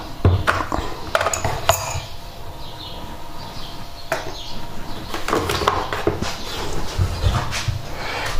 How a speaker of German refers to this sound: Also die typische Morgenatmosphäre jetzt die Kaffeemaschine.